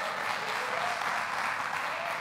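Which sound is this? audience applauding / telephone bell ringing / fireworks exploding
audience applauding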